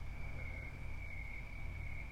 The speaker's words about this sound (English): like hope you can hear right now the crickets are chirping the sun uh, you know it was already down but now it's even darker it's just kind of this calm right now